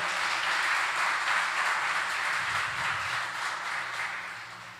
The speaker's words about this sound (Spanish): Si vas a aplaudir al Rey de Reyes, apláudele.